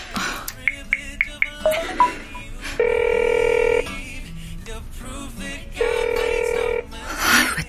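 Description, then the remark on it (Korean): A quick run of dialing beeps gives way to a phone ringing on the line: two steady, buzzing rings about a second each, separated by a pause, with no one picking up. “전화를 안 받아.”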